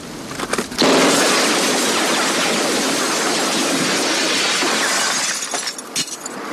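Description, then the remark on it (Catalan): A few sharp cracks lead into a loud, sustained crash of shattering glass as Michael Douglas fires at a telephone booth, then a scatter of falling shards trailing off. No one speaks. “Avui parlarem de la fúria, no de Michael Douglas disparant a una cabina de telèfons, o la versió més domèstica, que és l'enfadament.”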